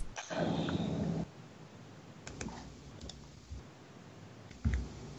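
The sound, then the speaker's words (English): A second-long rattling clatter of dice rolled on a tabletop for a perception check in a game, then a few sharp clacks and taps scattered over the next few seconds as the dice tumble and settle. “Let's get these dice rolling awfully.”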